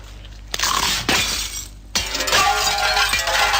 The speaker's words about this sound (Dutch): Nieuwe crispy chips van Smis... Ze smaken zoals ze kraken.